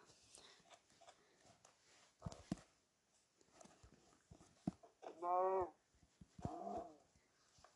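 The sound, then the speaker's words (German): A pig grunts in a video game as it is quickly killed, two short, loud snorting calls in quick succession, surrounded by scattered clicks and soft tapping game sounds. “ist auch Schwein zwar auch schnell gekillt.”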